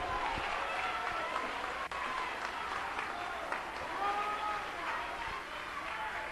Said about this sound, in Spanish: Denle un aplauso a Cristo que él se lo merece en esta noche.